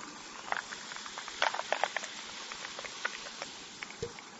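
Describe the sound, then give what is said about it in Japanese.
Soft, steady fizzing with a dense scatter of tiny crackling pops as carbonated water is poured to dilute a homemade summer drink concentrate, fairly quiet, with no voices. “お、ちょっと聞こえたでしょシュワっていうの。”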